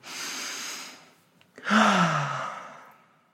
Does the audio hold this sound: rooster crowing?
no